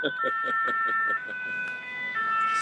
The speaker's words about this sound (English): Man, their siren is more annoying than ours. Yeah, isn't it? Here, let's it's, an, it's a more annoying siren. Here, look. Can you see it? Good lord. Oh, yeah, it's pretty annoying.